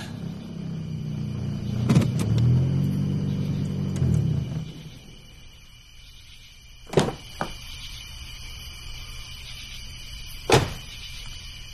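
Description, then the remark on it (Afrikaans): A car's engine rumbles and cuts off in front of a farm homestead, followed by the clunks of a door opening and a door shutting as someone gets out, with a short faint rattle between them. No one speaks. “Miskien moet ek uitklim en soheen toe loop.”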